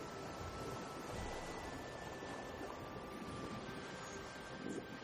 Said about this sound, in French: Vous entendez le vent dans les palmiers derrière vous.